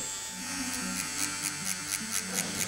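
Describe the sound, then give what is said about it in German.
A tattoo machine hums steadily at a low-pitched, slowed buzz, its frequency turned down so the needle moves in and out more slowly, with a quick series of regular rhythmic taps pulsing through it; no one speaks. “Ich ähm, habe, wie man ja gerade schon gehört hat, die Maschinenfrequenz so ein bisschen runtergedreht.”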